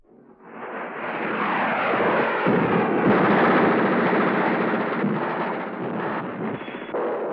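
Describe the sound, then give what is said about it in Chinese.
Warplanes roar overhead amid a continuous rumble of artillery shells exploding, building quickly to a loud, dense wall of noise that stays heavy and turbulent throughout, with no voices. “飞机在怒吼，炮弹在咆哮，生命涂炭，房屋燃烧。”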